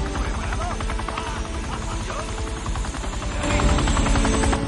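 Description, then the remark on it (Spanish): A helicopter rotor chops steadily, a loud rhythmic whump with engine whine, swelling louder near the end while indistinct voices murmur beneath it as men load their luggage into the helicopter. “Un rotor gira.”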